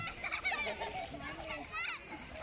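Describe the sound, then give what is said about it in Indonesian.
Children play in floodwater in Kedoya Selatan, an area along the Pesanggerahan River, their high voices shouting and squealing in a lively, continuous jumble over a steady wash of outdoor noise. “Anak-anak memanfaatkan situasi ini untuk bermain air sementara pasukan oranye sibuk melakukan evakuasi warga.”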